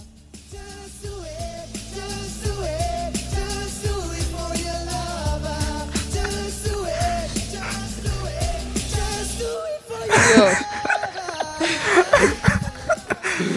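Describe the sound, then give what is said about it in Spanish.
A singer representing Spain performs over steady backing music at a televised gala, then the voice strains and cracks on a high note, giving way to a rough, noisy stretch near the end. “su actuación, pues como, como he dicho antes, pues hizo un gallo impresionante.”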